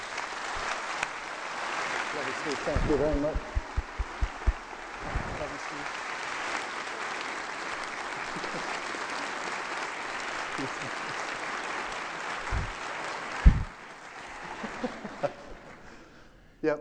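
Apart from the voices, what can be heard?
audience round of applause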